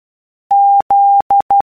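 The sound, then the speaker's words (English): Morse code for the letter Z (Zulu): a steady mid-high tone keyed in two long dashes followed by two quick dots, loud and clean with no voices. “Morse code.”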